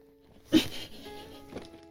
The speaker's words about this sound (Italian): Uruz guai, girandogli attorno.